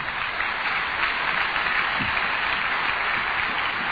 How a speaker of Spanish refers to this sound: Yo quiero, denle un buen aplauso al Señor.